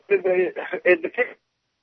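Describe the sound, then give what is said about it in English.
A caller's thin, telephone-quality voice comes through in choppy fragments, cutting in and out in short bursts for over a second before dropping abruptly into silence as his cell phone connection breaks up. “We're losing his cell phone.”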